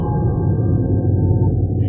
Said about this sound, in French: Et tout d'un coup, même depuis la surface, on a entendu un hurlement à glacis qui venait des profondeurs.